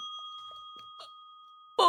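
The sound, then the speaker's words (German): A bell rings with a steady, sustained tone that holds at an even, moderate level, until a sudden loud burst of sound breaks in at the very end. “ups, das war die Glocke.”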